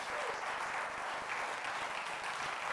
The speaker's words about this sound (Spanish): Démosle un aplauso al Señor, hermanos.